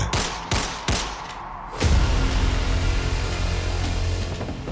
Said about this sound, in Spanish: Bastaron tres disparos para que Olger cayera muerto sobre la silla